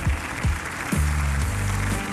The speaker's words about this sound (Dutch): En hier is uw frivole gastheer, dames en heren, een daverend applaus